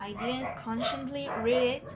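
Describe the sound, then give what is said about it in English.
A person's own dog barks while the person keeps talking over it, the barking partly buried under the steady speech. “I don't know why, but everyone's yelling, dogs are barking.”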